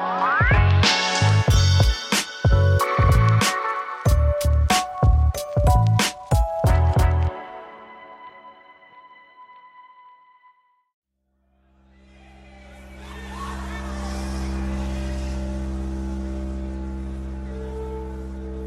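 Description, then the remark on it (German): Live recording of electronic music by a German band in Reims Cathedral in 1974: a run of sharp, rhythmic synth stabs with ringing tones fades into near silence, then a loud sustained drone with a hissing, shimmering upper layer swells in. “Was ihr hier hört, das ist ein Live-Mitschnitt.”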